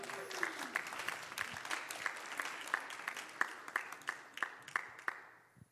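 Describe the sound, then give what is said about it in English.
An audience at a church service claps steadily for several seconds, the sharp overlapping claps forming a lively patter that tapers off and fades out at the end. “Can we give them a hand clap, please?”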